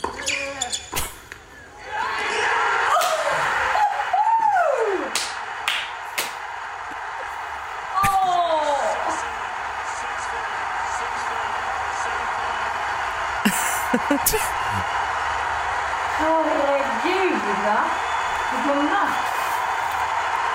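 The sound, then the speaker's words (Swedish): A recording of a tennis match: the crowd suddenly erupts into loud, sustained cheering and roaring at the winning point as Rafa Nadal wins a match of five hours 24 minutes, with a woman's high, excited cries rising and falling above the din. “Jag tog till och med fram och spelade in när det historiska ögonblicket inträffade.”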